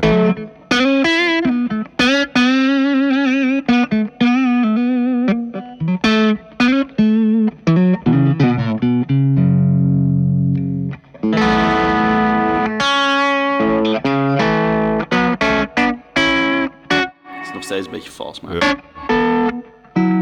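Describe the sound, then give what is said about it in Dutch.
A loud, distorted electric guitar, an SG Special-type with two P90 pickups, plays a choppy riff of bright picked notes and chords, settling into a heavy sustained low chord midway before the riffing resumes. “dan hoor je meteen dat hij meer output ja, heeft. Ja, wat meer eh, ballen heeft in het onderkant.”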